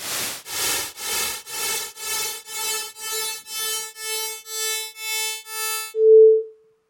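Twelve evenly spaced bursts of hissy noise, a demonstration of pitch perception arising from periodic repetition, grow steadily more tonal, a buzzy pitch emerging from the hiss, then a brief clear pure tone sounds alone at the end.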